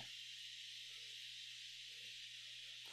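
A steady, continuous hiss of an apartment radiator's steam release valve letting off built-up pressure, unbroken for the whole stretch, with a faint low hum beneath it and no voices.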